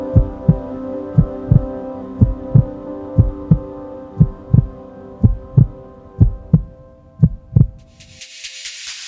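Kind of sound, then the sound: sound effect, heartbeat sound effect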